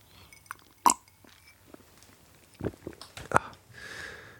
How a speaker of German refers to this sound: Ich trinke jetzt mal einen Schluck Wasser.